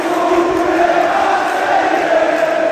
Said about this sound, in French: Le stade se met alors à chambrer l'OM au coup de sifflet final.